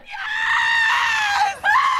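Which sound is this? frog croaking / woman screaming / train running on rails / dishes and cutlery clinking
woman screaming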